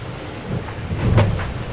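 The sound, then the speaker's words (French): Strong northwest wind of 30 to 42 knots roars steadily across the microphone over the deep rumble of a rough, chaotic sea southwest of tropical depression Theta, as a boat sails downwind; a gust swells louder midway before easing back. No voices. “Il y a 30 et 42 nœuds de vent de nord-ouest.”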